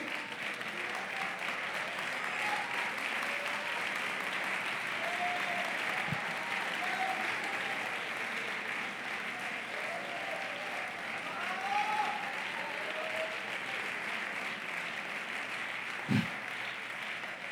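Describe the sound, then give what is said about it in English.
An audience stands and claps their hands to the Lord in steady, sustained applause, a dense wash of many hands that stays even in loudness throughout, with faint voices rising briefly through the clapping. “Stand up and clap your hands to the Lord right now, would you?”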